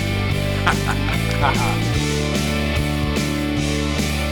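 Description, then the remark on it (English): A short, loud musical bumper sting for the radio show From the Cheap Seats plays on its own, a run of brassy, honking tones stepping up and down in quick bursts over a steady backing, with no one talking. “By the bumper.”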